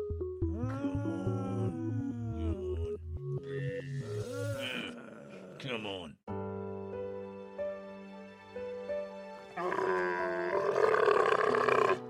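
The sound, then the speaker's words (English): A camel grunts and groans, with loud, drawn-out gurgling bellows and rumbling roars that run almost continuously, broken by a brief spoken phrase. “Have you ever thought about adopting a camel?”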